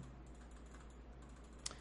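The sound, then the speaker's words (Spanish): Soft, repeated computer clicks tap away over a low steady hum, with one sharper click standing out near the end. “Dispense usted si lo está escuchando grabado, ¿no? Por escuchar tanto clic”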